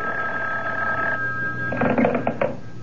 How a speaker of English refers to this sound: on the morning of the third day after Myrna's call, when I wasn't even thinking about the phone, it rang